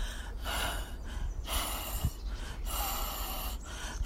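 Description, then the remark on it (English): A female pet makes a string of breathy, wheezing huffs with no clear voiced tone, several airy bursts in a row, steady in loudness. “Sounds like she's wheezing a bit there.”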